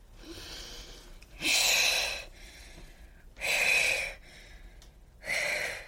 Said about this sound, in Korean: 조금만 움직여도 삐걱거리는 매트리스에 가만 누워 있으면 할머니 방에서 나는 소리가 미약하게 들려왔다. 쓱쓱 하고 가쁘게 숨을 뱉는 소리였다.